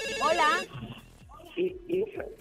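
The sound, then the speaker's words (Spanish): A loud, warbling electronic telephone ring sounds for a brief burst at the start, then cuts off as people begin talking. “Están los teléfonos sonando.”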